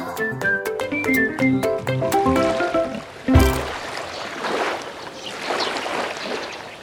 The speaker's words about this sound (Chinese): 听，这摇摇晃晃的海浪声。没错，小星星，我们今天来到了海边喽。